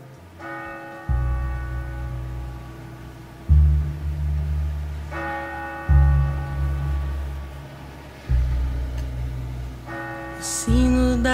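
A recorded song opens with tolling bells: deep, resonant strikes land every couple of seconds, while brighter ringing chimes sound three times over them. No voices are heard.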